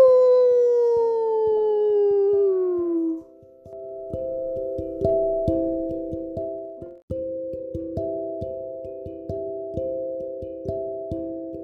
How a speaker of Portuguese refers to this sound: Logo, o lobo grande e peludo, com garras e presas imensas, pela primeira vez uivou para a lua.